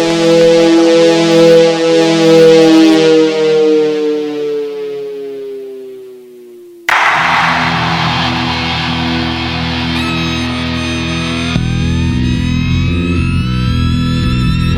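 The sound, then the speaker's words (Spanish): A rock band's song plays loud, opening with a sustained guitar note that slides downward and fades, then a dense, distorted full-band passage crashes in and drives on without any talking. “La, banda suena de puta madre, realmente.”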